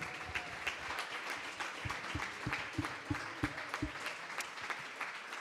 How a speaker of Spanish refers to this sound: Eso, él el aplauso al Señor, me salió el corazón.